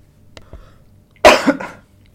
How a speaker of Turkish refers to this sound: O tam kayda girdi senin öksürüğün girdi abi.